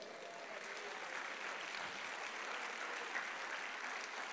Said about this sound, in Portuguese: Dá um glória a Deus aí, aplauda o Senhor.